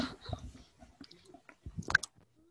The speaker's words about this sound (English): Sound like you just fell off your chair then. Yes. No, I'm eating Pringles.